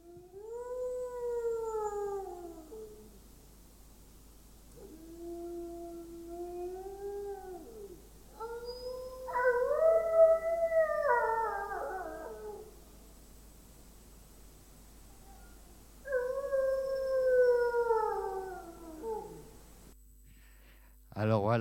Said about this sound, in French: Il va poser un enregistreur la veille sur un arbre et puis il le laisse tourner toute la nuit et on espère que les loups bah, nous fassent des vocalises. Et là, il y a un tout petit aperçu des vocalises sur la petite vidéo.